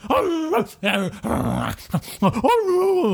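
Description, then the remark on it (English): A person howls like a dog in several drawn-out, wavering vocal bursts, loud, with short breaks between the cries. “and I and I howl back”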